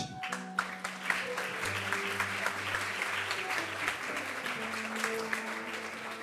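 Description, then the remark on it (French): An audience bursts into sustained applause as a speaker is invited to take the microphone, a dense, steady patter of many hands clapping for several seconds, with a low hum running underneath. “Merci d'applaudir comme il se doit”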